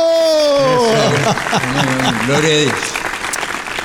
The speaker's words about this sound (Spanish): un aplauso.